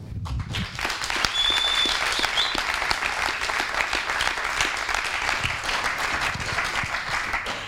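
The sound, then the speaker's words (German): A live audience, the people in front of the hosts at a recording, applauds steadily for several seconds, a dense wash of many hands clapping at an even, fairly loud level with no voices standing out. “Das machen nämlich die Menschen vor uns und vielleicht klatscht er einfach mal.”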